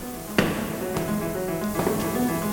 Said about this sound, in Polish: Jak słyszycie, stoimy w takim dużym holu pełnym pogłosu, ale za chwilę, jak wejdziemy do wewnątrz, okaże się, że atmosfera jest zupełnie inna.